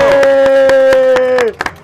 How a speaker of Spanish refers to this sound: también hay muchísima gente aplaudiendo gracias gracias gracias oyen los aplausos, exactamente ustedes los envidiosos dirán que es efecto especial